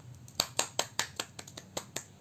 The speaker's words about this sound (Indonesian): Ore, tepuk tangan mana tepuk tangan?